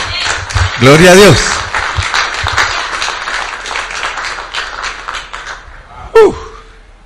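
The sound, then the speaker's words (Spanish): A church audience claps for the Lord during a sermon, continuously in a dense, crackling patter for several seconds, with a loud shouted voice rising over it near the start and another brief exclamation as the applause fades. “Dele palmas al Señor.”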